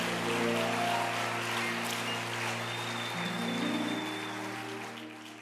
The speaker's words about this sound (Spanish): Un aplauso a Jesús. Amén.